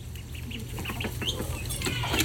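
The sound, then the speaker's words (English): A hen named Linda squawks and clucks at her flock mates in a run of harsh, repeated calls, fairly loud, with a steady low hum underneath and no talking. “Even though you couldn't see Linda screaming at her flock mates, you heard it.”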